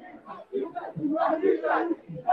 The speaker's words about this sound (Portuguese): A galera tá, tá gritando palavras de ordem, racistas não passarão.